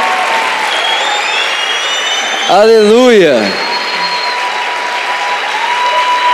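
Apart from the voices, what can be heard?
audience applauding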